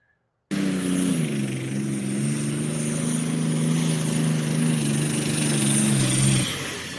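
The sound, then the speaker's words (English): A loud turbocharged pulling-tractor engine roars at steady high revs under load, with a thin turbo whistle above the deep drone. It starts abruptly, holds for about six seconds, then drops away. “Oh, couldn't stay on top of that turbo.”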